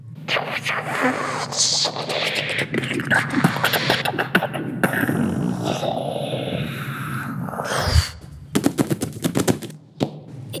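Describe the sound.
Children make a vocal imitation of a spaceship taking off: loud, continuous rumbling and sputtering mouth noises for several seconds, ending with a sharp burst and a few choppy bursts.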